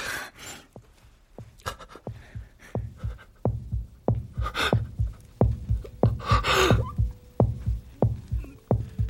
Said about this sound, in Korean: 이 소리 들려? 무슨 소리? 아무 소리도 안 들리는데. 이, 이거 태아 심장 소리 같은.